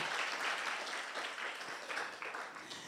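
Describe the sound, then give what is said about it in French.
An audience breaks into steady applause, a dense, continuous crackle of many hands clapping at an even level for the whole stretch, with no voices rising above it. “Je pensais que l'Église allait applaudir.”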